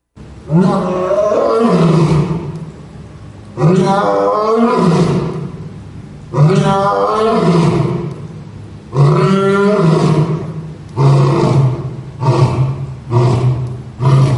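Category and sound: animal, lion roaring loudly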